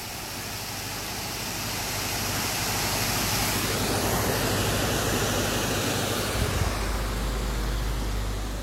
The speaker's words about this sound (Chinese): 而且很让我惊讶的是，我在这儿听到了哗啦啦的流水的声音。在这样的时节，听到这样清澈的流水声，真的是让人觉得神清气爽。不知道大家能不能听到啊？